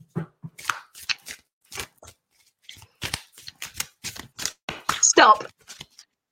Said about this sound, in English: Okay, …, so I'm going to do some more shuffling, and you can go ahead and say stop whenever you're ready.